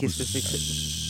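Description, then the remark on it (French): A short spoken phrase gives way to a steady, droning vocal buzz with a hissy edge, a voice imitating an airplane engine, held evenly for about a second. “vous faisiez le bruit de l'avion. oui, je fais le bruit de l'avion.”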